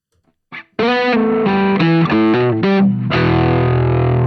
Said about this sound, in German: was da noch fehlt, ist tatsächlich … mit …. Das packe ich an dieser Stelle mal drauf